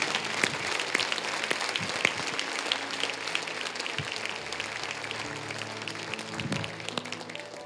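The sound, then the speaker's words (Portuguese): A crowd applauds steadily for several seconds to celebrate the Lord, a dense wash of many hands clapping at once, fairly loud and sustained with no voices standing out. “Vamos aplaudir, celebrar o Senhor nosso dignidade.”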